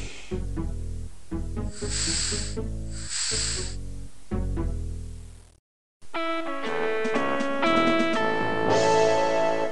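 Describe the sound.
A mouth mimics a prototype vacuum cleaner sucking, making two breathy, hissing bursts over snorting, buzzy sounds. A brief silence follows, then music plays.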